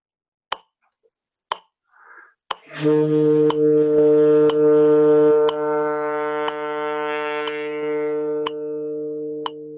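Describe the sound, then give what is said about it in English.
A steady metronome ticks about once per second, then a wind instrument enters with one long, rich sustained note, played as a dynamics control exercise, that holds fairly loud over the clicks until the end. “I'm going to just play one note in particular.”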